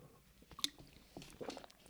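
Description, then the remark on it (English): Someone takes a quiet sip of water, with a few soft wet slurps and small mouth clicks spread over about two seconds, no talking. “as I take a sip of water”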